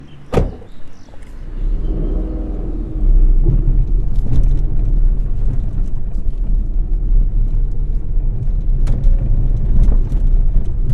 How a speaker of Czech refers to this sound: Slunce už pomalu zapadá. Nasedám do auta a klinika mi postupně mizí v zádech.